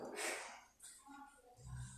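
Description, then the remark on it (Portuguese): Hunting dogs chasing armadillos sniff and snort softly, with brief panting breaths and a faint whine, ending in a low rumbling scuffle; no one speaks. “É, Atrás dos tatu com os cachorros.”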